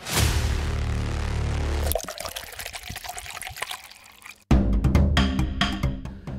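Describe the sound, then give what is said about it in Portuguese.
Drinking water runs steadily from a tap, wastefully left running in Maputo, then breaks into splashing drips and trickles, followed by another strong gush of flowing water; fairly loud, with no voices. “Enquanto alguns vivem sem água, Outros deixam água potável escorrer sem remorso.”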